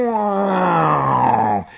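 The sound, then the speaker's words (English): A voice imitates a speedboat engine roaring past on a lake: one loud, buzzing, sustained drone whose pitch slides steadily downward for about a second and a half, then cuts off abruptly. “And you see this speedboat going,”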